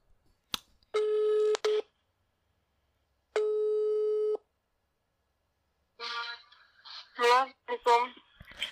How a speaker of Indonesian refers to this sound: Bentar lagi kita telepon.